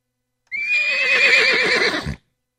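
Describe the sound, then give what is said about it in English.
A toy horse bought at a flea market lets out a single loud neigh lasting under two seconds, a bright tremolo whinny that cuts off abruptly, with silence before and after and no talking. “Now we got a flea market horse that I fought. I bought at the flea market.”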